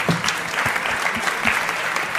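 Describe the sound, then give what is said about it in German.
Steady applause from an audience, dense and continuous clapping at a fairly loud level, with no voices standing out. “Ein großer Applaus nochmal.”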